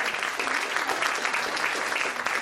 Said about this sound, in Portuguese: Quero agradecer muitíssimo a presença dos nossos dois escritores maravilhosos. Queria pedir uma afetuosa salva de palmas a eles.